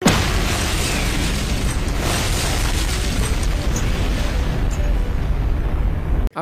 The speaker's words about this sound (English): we'll do a nuclear explosion sound effect.